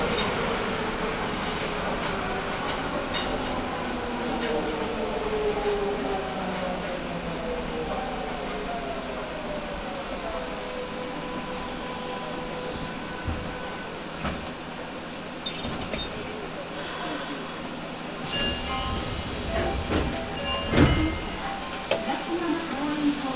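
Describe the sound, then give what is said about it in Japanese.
Steady rumble of a Nagoya Municipal Subway Higashiyama Line car bound for Fujigaoka running on rails around Sakae station, with rhythmic wheel clatter, rising and falling motor whine, and occasional sharp squeals and clunks as the train moves along. “耳で楽しむ鉄道旅 名古屋市営地下鉄東山線 高畑→藤が丘”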